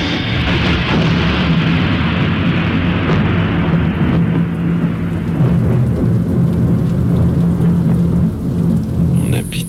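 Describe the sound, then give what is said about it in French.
Steady rain patters densely and loudly throughout, while low rolling thunder rumbles underneath. No one speaks. “Il pleut et j'entends le clapotis du passé qui que c'est joli la pluie.”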